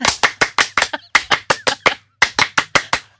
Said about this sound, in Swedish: Eh, fransk applåd på det eller? Un, deux, trois!